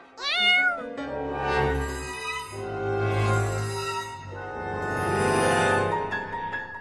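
A cat meows loudly, about three long, drawn-out, wavering cries in quick succession, with no talking around them.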